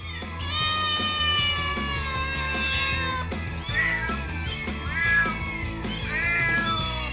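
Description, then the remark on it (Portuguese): Several cats meow loudly and insistently in the house of an elderly lady who kept very many cats, their drawn-out, wavering cries overlapping one another in a continuous chorus, with some yowling tones rising above the rest. “Ou melhor, a casa de uma senhora conhecida da família deles, já velhota, muito simpática e muito exótica, que adorava gatos e tinha imensos.”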